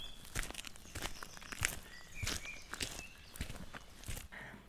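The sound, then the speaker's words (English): Footsteps crunch along a forest floor at an unhurried, steady pace, about seven or eight distinct steps, with faint bird chirps in the background and no talking. “So, for example, imagine you're wandering through a beautiful forest.”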